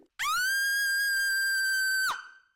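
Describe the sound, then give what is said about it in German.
A single loud, high-pitched human scream held at a steady, piercing pitch for about two seconds, then cut off abruptly with a brief fading tail. “Ich weiß nicht, soll ich erstmal alleine schreien, damit wir es überprüfen können?”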